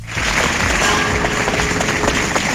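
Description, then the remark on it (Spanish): Neighbours in Algeciras applaud steadily around 10 at night as a hearse carrying the body of Valencia arrives, dense overlapping clapping that fills the whole moment at a constant, fairly loud level, with no pauses or individual voices standing out. “Con estos aplausos se recibían los vecinos de Algeciras al filo de las 10 de la noche la llegada del coche fúnebre con el cuerpo de Valencia.”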